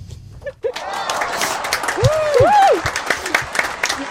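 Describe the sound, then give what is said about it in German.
Steady applause from a group for the announced winner of a competition, a dense wash of clapping that swells after a brief quiet start, with a few cheering or whooping voices rising and falling over it. “Großer Applaus.”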